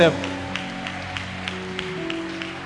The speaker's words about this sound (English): add some excitement to your clap. And add a shout of praise to it.